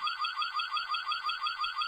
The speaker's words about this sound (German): Und das Ding kann man auch als Alarmanlage benutzen.